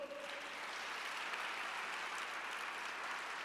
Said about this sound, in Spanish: Dese un aplauso fuerte.